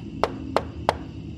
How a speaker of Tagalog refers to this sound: Isang gabi, mga alas 10 na iyon, Nasa kwarto na ako noon at nagpapaantok. Biglang may kumatok sa pinto ko.